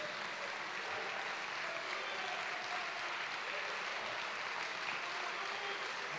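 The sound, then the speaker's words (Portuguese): An audience applauds steadily for several seconds, a dense, even wash of many hands clapping at once with no pauses and no voices over it. “Na verdade, você tinha que ficar em pé e aplaudir.”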